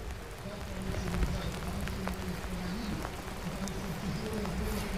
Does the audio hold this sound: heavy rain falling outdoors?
yes